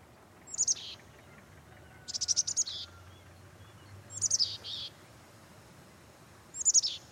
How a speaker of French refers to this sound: Ce que vous entendez là, c'est le chant d'une mésange. En hiver, ces petits oiseaux sont granivores. Puis ils redeviennent insectivores au printemps et en été.